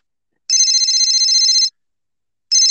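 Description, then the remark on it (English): A telephone rings on an outgoing call to a reporter out on the street in Shatek: a loud, clear electronic ring lasting just over a second, a short pause, then the next ring starting. No one speaks. “Uh, I'm gonna call him up and uh, see what he has to say about things.”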